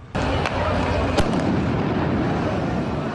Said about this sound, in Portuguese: Em outro bairro, os policiais dispersaram a multidão com bombas de gás lacrimogênio.